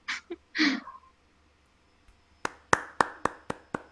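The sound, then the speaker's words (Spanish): A few brief breathy bursts, then a short pause and about six crisp hand claps in a steady, fairly quick rhythm, loud, from what sounds like a single person. “Un aplauso”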